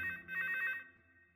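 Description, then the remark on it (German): A telephone rings with a rapid, trilling bell burst that lasts under a second, then fades into a quiet tail. Clear, with no voices. “Filippo geht ran und sagt sowas wie, Hallo, ich hoffe, es ist wichtig.”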